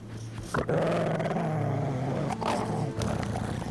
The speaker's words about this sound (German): Sobald sich ein Matrose nähert, wird er wütend, bellt und fletscht die Zähne.